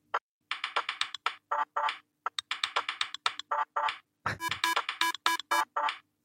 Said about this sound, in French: C'est fait avec des sons de bureau. On dirait pas trop un son de bureau. Glitches. si, il y a des petits bruits de clavier et tout ça des, bruits de machine à écrire, de clavier